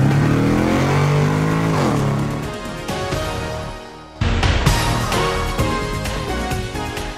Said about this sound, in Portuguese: engata a primeira e acelera!